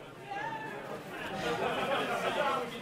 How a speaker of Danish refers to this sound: Mens selskabet summer af liv